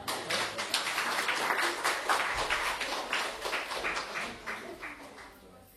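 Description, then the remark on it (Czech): An audience applauds the people who have just been asked to sit down, with many hands clapping in a dense, steady patter that holds for several seconds and then slowly thins out and fades toward the end. No one speaks over it. “Můžete si sednout, moc děkuju, můžete jim zatleskat.”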